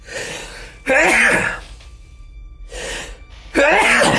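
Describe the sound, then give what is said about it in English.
Two loud sneezes about two and a half seconds apart, with a softer breathy intake just before the second one and near-silence in between. “This is like like the third time I've sneezed since we started this business on camera.”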